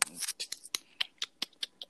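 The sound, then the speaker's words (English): A rapid series of sharp, crisp mouth clicks made by a man, about eight or nine in quick, fairly regular succession, moderately loud with no talking. “he does it so often that clicking noise. It's irritating.”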